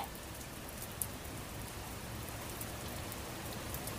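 Steady rain falls continuously at night on a street with a large cherry tree, wetting the blossoms and the asphalt, a dense even hiss of drops spattering on surfaces, with a brief sharper drip standing out early on and no voices.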